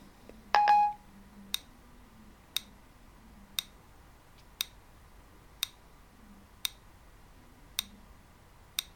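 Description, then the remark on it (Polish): A Siri voice assistant's button-press beep: one short, bright electronic tone at the start, followed by a steady series of soft ticks about once per second, with no one speaking. “Posłuchaj. Przycisk.”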